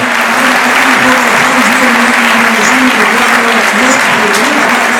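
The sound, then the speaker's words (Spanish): A large stadium crowd at a football match gives a standing ovation as the player Medullani is substituted, applauding steadily in a dense, continuous roar of clapping and cheering for several seconds, with a voice faintly audible beneath the ovation. “La ovación que está en pie.”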